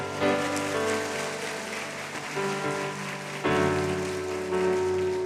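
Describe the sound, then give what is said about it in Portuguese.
A crowd claps steadily to applaud Jesus in a dense, continuous patter of applause, with sustained musical tones playing underneath; the clapping swells louder partway through and holds to the end. “Você pode dizer um amém e aplaudir Jesus por isso?”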